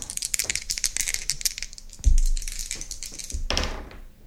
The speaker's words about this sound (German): Und das darfst du machen, weil ich habe meine Würfel zu Hause vergessen. Du hast keine Würfel. Das heißt, ich würfel heute mal ganz allein.